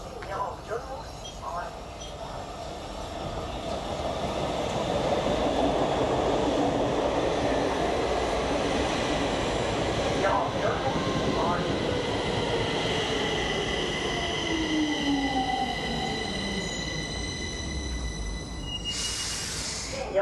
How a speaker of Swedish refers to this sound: Eh, han brukar känna på sig att vi är på väg att ha lite roligt, jobba så, nu kommer tåget Delta.